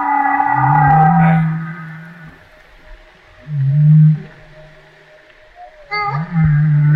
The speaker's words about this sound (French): Est-ce que ça, c'est une baleine à bosse qui répond, ça